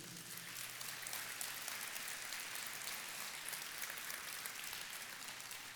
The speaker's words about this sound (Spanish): Dele un aplauso al Señor.